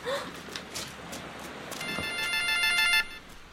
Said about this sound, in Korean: 이 녀석이 왜 자꾸 전화질이야?